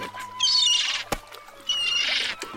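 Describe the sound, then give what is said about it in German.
A seagull squawks twice in harsh, raspy bursts, fairly loud, with a brief sharp knock between the calls. “Lästige Möwe, hier gibt es nichts, verschwinde!”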